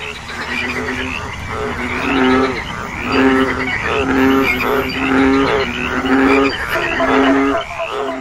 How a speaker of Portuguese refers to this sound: Mas, como se na floresta houvessem milhares de caixas de som espalhadas, todos os sapos, rãs, pererecas, cururus começaram a coachar ao mesmo tempo.